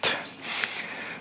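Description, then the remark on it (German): A single short sneeze bursts out at the start, a sharp breathy blast that trails off into soft hissing breath. It is not especially loud, with no talking over it. “Ähm, Gesundheit.”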